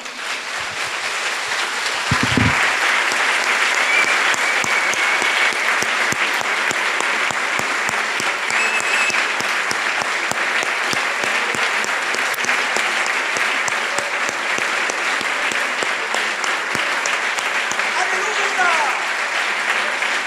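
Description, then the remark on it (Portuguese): An audience at a Christmas sermon applauds the Lord Jesus, breaking into steady, sustained applause, a dense wash of clapping that holds at an even level for about twenty seconds with no voices standing out. “Ah, podemos aplaudir o Senhor Jesus?”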